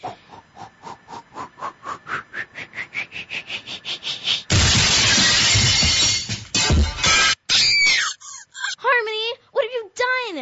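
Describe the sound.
A rising whistle builds up, then a precious vase shatters in a loud crash, a vinyl record destroyed along with it, with a long ragged tail of breaking debris, followed by squeaky, warbling voice-like sounds.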